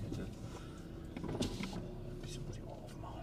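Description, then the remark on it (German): A car's power window whirs steadily for a few seconds, a continuous motor hum with faint rustling inside the car. “Jetzt ist es wieder so warm hier drin, weil die Scheibe unten ist.”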